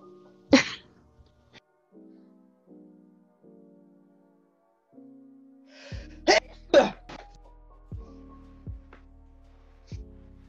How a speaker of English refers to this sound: Gotta sneeze. Wait.